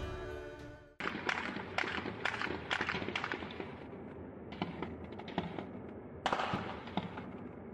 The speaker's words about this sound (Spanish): con la camioneta negra y comienzan a disparar hacia los matorrales. Un militar que se queda al frente de la camioneta sin protegerse y pegado al muro vigilando a los detenidos. Esos disparos son captados por ciudadanos a varios metros de distancia.